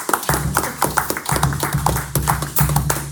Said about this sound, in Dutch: Ik eh, dank jullie van harte voor jullie bijdrage. Even een applaus, dames en heren.